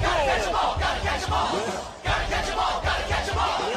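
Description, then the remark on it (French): A loud chorus of voices sings the Pokémon cartoon theme song, energetic and full, with sustained and sliding sung notes over steady backing music, continuous for a few seconds with one brief dip midway. “Dans le générique de Pokémon, on peut entendre ceci.”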